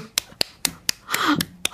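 A close, steady run of about seven sharp hand claps at an even brisk pace, with a faint voice sounding briefly beneath the claps midway through.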